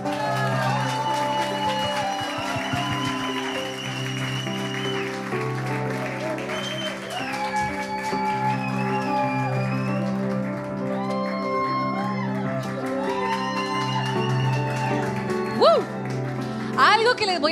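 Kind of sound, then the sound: crowd, audience applause and cheering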